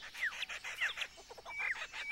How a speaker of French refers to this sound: Ce rire appartient à un oiseau mythique de la culture des aborigènes, les premiers peuples d'Australie. C'est le rire du kookaburra. Notre cher imitateur lui a emprunté son chant et il le reproduit à la perfection.